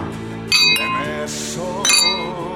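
glasses clinking

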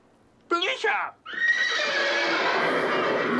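horse neighing

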